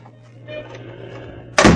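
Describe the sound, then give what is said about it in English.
A low, steady hum and faint shuffling until a door is suddenly slammed shut, a single loud, heavy bang right at the end. “Lock this door from the outside.”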